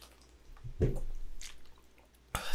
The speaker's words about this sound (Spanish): Un episodio tan natural que voy a beber agua y todo en mitad. Y no se va a cortar.